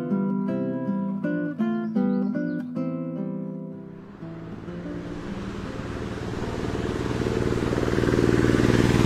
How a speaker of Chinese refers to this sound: 这是拖拉机吗？ 真的是拖拉机， 拖拉机你也笑呢？